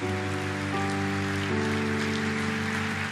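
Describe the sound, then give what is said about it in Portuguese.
An audience in an auditorium applauds in a steady, dense patter that doesn't let up, while sustained keyboard chords hold underneath and shift once or twice. No one speaks. “Vamos aplaudir, vamos.”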